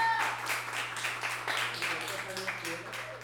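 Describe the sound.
A crowd applauds steadily for a woman just introduced by the host, a dense wash of many hands clapping at a fairly even level for a few seconds, with a low electrical hum and faint voices mixed in.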